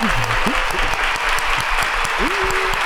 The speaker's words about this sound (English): I like it. The applause. I yeah, like it. yeah. Got the sound effects